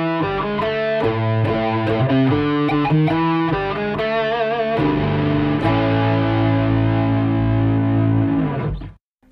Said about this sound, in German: Na gut, also an dieser Stelle jetzt Themenwechsel und äh, dann könnte ich, so stelle ich mir das vor, eben genau dieses Jingle vom André Jonas spielen. Das hört sich dann so an.